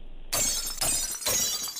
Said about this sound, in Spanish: Y diles, aquí se rompió una taza.